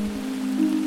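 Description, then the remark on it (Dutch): Steady rain hisses outdoors in Winterswijk, a continuous patter of falling water that began as the speaker got out of the car, over a low, constant hum, with no voices and no breaks. “is het geluid van de regen, die strak getuimd begon toen ik hier de auto uitstapte.”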